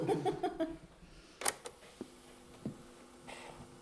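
A handful of sharp plastic clicks and clacks as a cassette that has reached its end is turned over in a cassette recorder and the recorder buttons, including play, are pressed, with a faint mechanical hum between the clicks.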